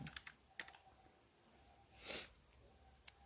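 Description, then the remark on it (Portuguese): Scattered, sharp clacks of someone typing on a mechanical keyboard, a few quick strokes then a pause and one more, with a soft breathy sniff in between; quiet, no talking. “é muito estranho você ter um teclado que tem um som mecânico muito forte e ficar com o negócio aberto, né?”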